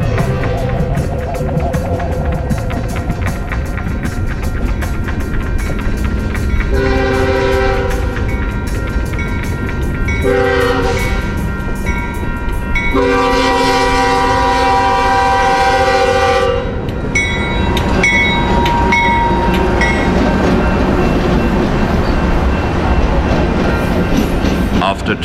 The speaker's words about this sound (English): I see a Norfolk Southern. Three engines in the front, a white grinder full of corn, pulling westbound.